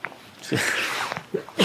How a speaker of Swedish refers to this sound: Oj, oj ursäkta. Prosit. Tack. Det kanske är från regn.